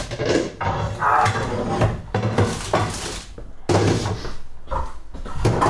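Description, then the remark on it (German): Pans and cookware, including a large pan, clatter as they are put back into a kitchen cupboard after being taken out beforehand, with a steady run of bangs, rattles and knocks and a sharp door-like thunk partway through, fairly loud with no voices. “Ja, wir haben, extra, wir haben extra alles äh, vorher rausgepackt, damit es so klappert.”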